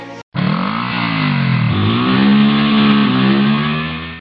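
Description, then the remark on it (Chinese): A motorcycle engine starts up after a brief gap and revs steadily, its pitch rising then dipping and climbing again as it rides off through easing rain, heading back to a dormitory. Loud and continuous, with no talking. “阿牛也赶紧骑着摩托车回宿舍了。”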